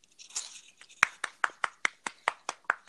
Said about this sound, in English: That was me clapping, was, guys.